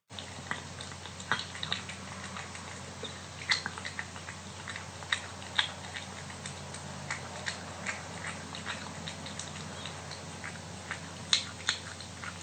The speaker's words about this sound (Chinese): 好，来听下一个也是吃罐罐，这个这个这只猫咪叫做珍珠，那它吃罐罐的感觉听起来就蛮高雅的。